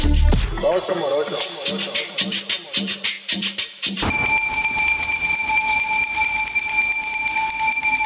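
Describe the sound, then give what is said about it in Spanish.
A garbage truck's hand bell in Mexico City clangs loudly and rapidly, about a dozen metallic strikes in quick rhythm, then gives way to a steady, shrill ringing tone over street noise, announcing the arrival of the garbage collection service. “Si hay un sonido que te hace correr cual maratonista en cuanto lo escuchas, es la estridente campana del camión de la basura.”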